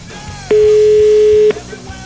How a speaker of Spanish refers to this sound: Estamos marcándole a ver qué onda. ¿Este teléfono de quién es, dices? De casa.